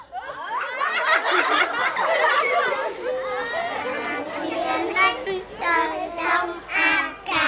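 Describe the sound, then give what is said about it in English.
Neighborhood kids playing soccer outdoors, outside the tall walls of a shelter: a steady jumble of children's excited voices, shouts and bits of laughter from several directions, continuous for the whole stretch with no single voice standing out. “Outside the tall shelter walls, neighborhood kids are playing soccer.”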